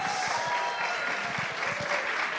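An audience applauds steadily, a dense, even wash of clapping hands that holds at a fairly loud level for a couple of seconds without any voices.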